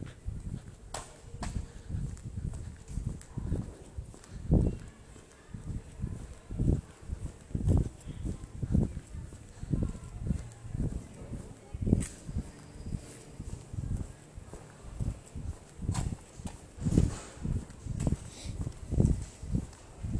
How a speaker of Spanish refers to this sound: Puedo seguir andando. Se van a escuchar mis pasos.